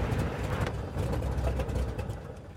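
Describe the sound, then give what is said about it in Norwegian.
A small airplane engine starts up and runs steadily on the ground before a short taxi, a loud, continuous rumbling drone with a gritty low roar that holds an even level throughout, with no voices. “Så kan vi sikkert ta en liten takserunde her, og så kan vi kjenne litt på motorpådraget og sånn.”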